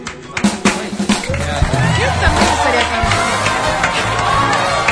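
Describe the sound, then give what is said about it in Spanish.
An audience breaks into loud, sustained applause after a song, a dense wash of clapping with scattered sharp claps and cheers, lasting several seconds. “Un aplauso fuerte, por favor.”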